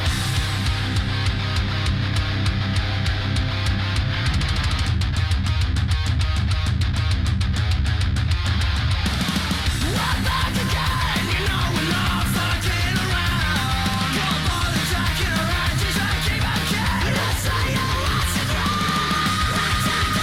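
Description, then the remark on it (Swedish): A loud, dense metalcore song with pounding drums and distorted guitars, shifting to a new section about halfway through, with vocals that move between clean singing and screaming. “med mycket mer skrik än föregående.”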